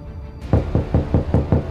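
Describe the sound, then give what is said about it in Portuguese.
Six quick, evenly spaced knocks on the wooden door of apartment 21, fairly loud, each a dull thud with a short decay, following a brief quiet moment. “Ao tocar na porta, o estômago de Ítalo revirou-se de ansiedade, medo e determinação.”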